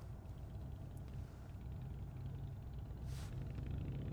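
A steady low engine rumble fills the cabin of a moving car, constant and fairly quiet, with a brief soft hiss partway through and no voices.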